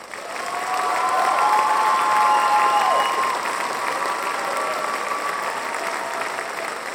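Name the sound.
applause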